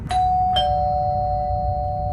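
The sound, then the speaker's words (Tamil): A house doorbell, rung by two police officers at the door, rings with two quick bright chimes, the second tone ringing on and slowly fading, clear over a low steady background rumble, with no voices. “வீட்டோட doorbell ring ஆகிற சத்தம் கேட்குது”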